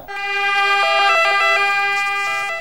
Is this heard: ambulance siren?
yes